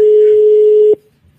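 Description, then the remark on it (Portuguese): A telephone busy signal while calling a listener: one steady, mid-pitched electronic tone holds loudly for about a second, then cuts off abruptly, leaving near silence. “Estamos ligando para você aí, ó.”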